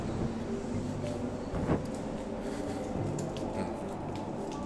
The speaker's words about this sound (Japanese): 今、えー、上野御徒町駅のホームに着きましたあちょうど電車がもうすぐ着くみたいですね